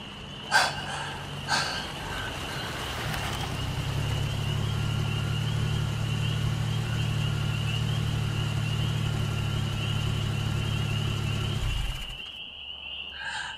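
A travel car stops not far from a stopped motorbike; its engine idles with a steady low rumble for several seconds after a couple of brief clicks, then cuts off abruptly, leaving near silence. No one speaks.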